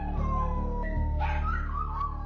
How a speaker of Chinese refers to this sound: 奔奔很难过，昂起头，狼嚎般唱起忧伤的歌。